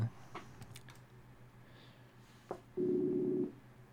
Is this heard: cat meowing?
no